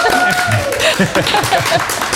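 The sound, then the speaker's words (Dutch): A burst of applause from a packed live audience at a recorded talk session fills the whole moment, dense and steady, with cheering voices and a whistle-like tone rising over the clapping. “we kunnen wel even we... applaus vragen van het publiek.”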